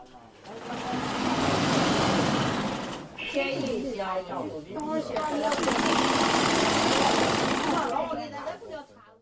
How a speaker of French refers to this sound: C'est un dépôt séculaire d'étoffes impeccablement empilées. En entendant le ronronnement fatigué d'une machine à coudre antique, Dewey fait un voyage dans le temps.